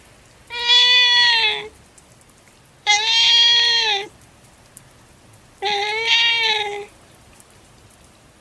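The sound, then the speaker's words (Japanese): A soaked kitten on a planter outside a home meows three times in long, drawn-out, evenly spaced cries, clear, over a soft, steady patter of light rain on a chilly morning, 13 November 2009. “出会いは2009年11月13日小雨が降る肌寒い朝だった自宅で妻と朝食をとっていると泣き声が聞こえてきた”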